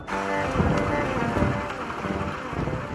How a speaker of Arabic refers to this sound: تطرق حبات المطر زجاج النافذة بعنف